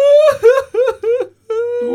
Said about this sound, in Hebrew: מה אתה בוכה? מה קרה? אתה עובד קשה מדי!